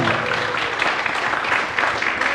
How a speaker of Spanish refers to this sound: Y eso se merece un aplauso.